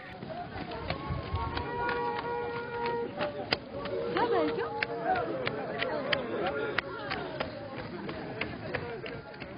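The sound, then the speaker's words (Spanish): Ritual dancers stomp in a steady, repeated rhythm, each sharp footfall landing over a busy background of murmuring voices and other ambient noise. “las pisadas, ¿no? Que son como, eso se interpretan como de brincos de venados o de sapos.”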